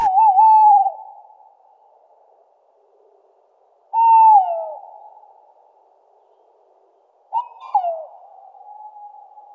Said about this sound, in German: Schön ist, wenn man mal so unter so einem Baum steht, wo so ein Waldkauz ruft, dann hält man das fast nicht für möglich, dass das ein Vogel ist. Und man denkt immer, das macht doch irgendjemand nach.